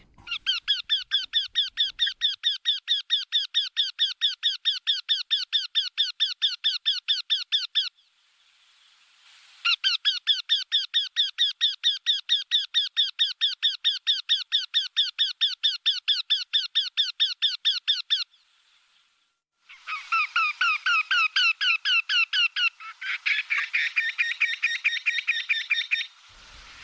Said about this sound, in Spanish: se le ha puesto ese nombre, el ayayay, pero realmente es el torcecuello eurasiático